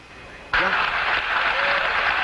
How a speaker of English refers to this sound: Listen to the crowd on the boat.